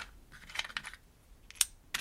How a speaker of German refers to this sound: stellt sich in seiner Werkstatt an einen seiner Setzkästen und zeigt, wie langsam im Winkelhaken Buchstabe für Buchstabe eine Textzeile entsteht.